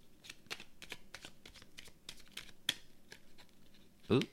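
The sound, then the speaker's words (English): Tarot cards being shuffled, a steady run of crisp papery flicks and snaps at a quiet level, ending with a louder soft thud as the deck settles. “Giving way more of a shuffle because I don't.”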